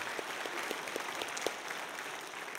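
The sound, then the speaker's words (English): An audience applauds, a dense wash of many hands clapping at a steady level, with a few sharper individual claps standing out at a roughly regular pace. “And that's the, that's if we're going to clap, let's clap.”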